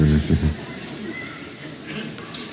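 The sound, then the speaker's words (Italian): Children's voices chatter and call out in the background, a muffled, continuous babble with a few higher shouts rising above it after a brief louder thump at the start. “C'è un chiasso qui di questi bambini terrificante.”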